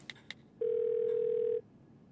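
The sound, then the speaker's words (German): Two quick clicks, then a single steady, low-pitched ringing tone on an outgoing phone call to Microsoft CEO Satya Nadella that holds for about a second before cutting off into quiet. No one speaks. “Dann nimmt er den Hörer in die Hand und ruft Nadella, den CEO von Microsoft, an.”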